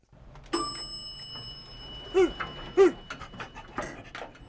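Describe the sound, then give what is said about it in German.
A dog pants in short, breathy bursts, with a couple of brief high whimpers in between, moderately loud, with no one talking. “Ach, das ist aber ein nettes Hundchen hier.”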